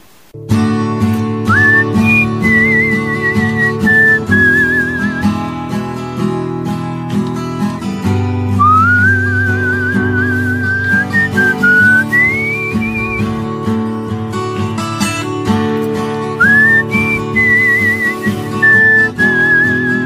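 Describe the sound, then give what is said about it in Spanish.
A person whistles a clear, bright melody in sustained, gliding phrases over a steady guitar-led musical accompaniment, the whistle sitting prominently above the instruments throughout. “con la guitarra y el silbido”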